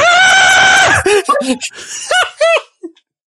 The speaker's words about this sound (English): I'm sure I heard the name of the brand that we're sponsoring in that scream.